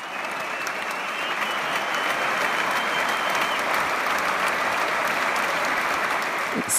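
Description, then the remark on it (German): Sustained, dense applause, a standing ovation from a large audience at the Saarländisches Staatstheater, loud and steady throughout with no pauses, the clapping of many hands blending into a continuous roar. “Hier, das macht Spaß, mal wieder sowas zu hören. Standing Ovations.”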